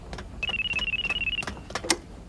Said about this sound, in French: Astro regarde le téléphone accroché sur le mur. C'est pour nous, c'est sûr Astro saute sur le combiné.